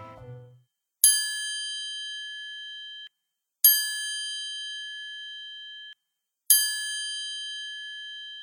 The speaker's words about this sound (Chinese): 这时，小猫拿出了一个银色的三角形，还有一根小棍子。他说：“这叫三角铁，只要你轻轻敲，就可以发出声音哦。”小熊拿着棍子轻轻敲。